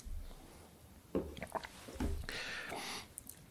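Someone takes a sip of water: a few soft mouth clicks and wet lip sounds, then a longer slurping draw and a swallow, with no talking.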